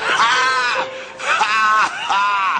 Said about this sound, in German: Das war bestimmt exakt sein Jubeln nach dem Apfel.